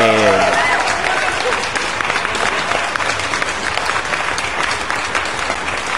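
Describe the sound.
A crowd bursts into sustained, steady applause, a dense wash of clapping that stays loud and even for several seconds, with a brief voice at the very start.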